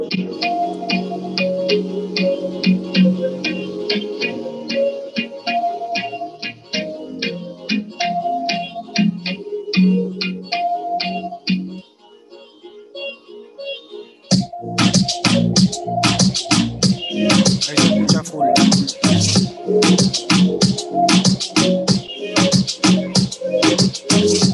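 A punchy electronic music beat with steady, repeated hits and faint, filtered vocals tucked behind it; it thins out briefly near the middle before the full loud beat kicks back in.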